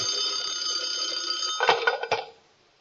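An old-fashioned telephone bell rings in a continuous metallic trill, fairly loud, then cuts off after a couple of clattering strikes as it is picked up.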